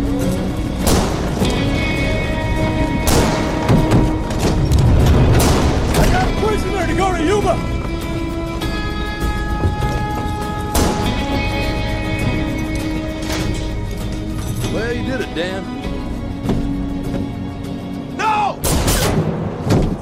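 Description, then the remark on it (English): Several sharp gunshots crack out loud at uneven intervals in a film scene, a man shot in the back several times, cutting through a swelling orchestral film score with a few shouted voices in the mix. “Charlie shoots him in the back. Several times. Yep. You hear each gunshot.”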